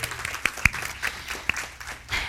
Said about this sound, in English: So um, one more round of applause for all the moms in the house and not in the house.